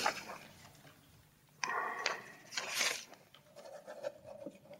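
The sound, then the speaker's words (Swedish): Dry rustling of paper pages of police interrogation records being flipped by a prosecutor in a courtroom, a few quick crisp sweeps in the middle followed by softer shuffling and handling, with no voices. “Åklagaren bläddrar vidare och tvingas läsa upp stora delar av polisförhören”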